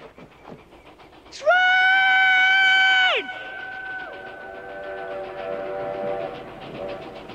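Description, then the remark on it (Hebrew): A train's horn blasts loudly for about two seconds, then lingers in lower, fading tones as the rumble of the train approaching on railway tracks over a river carries on beneath. “וכמובן, כמובן, כשמגיעה ש... הרכבת...”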